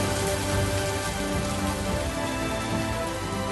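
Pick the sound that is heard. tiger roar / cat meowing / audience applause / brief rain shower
brief rain shower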